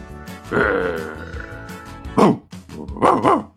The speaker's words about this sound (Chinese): 就在这时，迎面跑来了一只中华田园哮天犬。其实说白了，就是个土狗，冲着老爸就是一顿狂叫